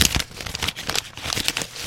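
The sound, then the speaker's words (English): Continuous crinkling of stiff wrapping paper as a person who has accidentally wrapped themselves up in it is stuck, a busy run of crackly rustles and crumples with irregular louder bursts, nobody speaking. “I've just accidentally wrapped myself up in a bunch of it, and embarrassing to say, but I'm stuck.”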